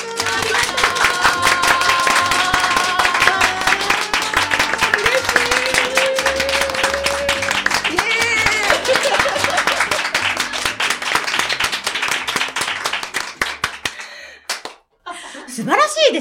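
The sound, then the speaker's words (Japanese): An audience of listeners at a live public recording of the show Rakko Channel applauds with dense, sustained, loud clapping and scattered cheers for about fourteen seconds, before it abruptly cuts off and a voice briefly speaks. “ノリがいい。素晴らしいですね。100人くらいいるような感じになりましたね。”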